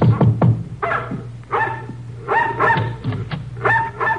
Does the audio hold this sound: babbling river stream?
no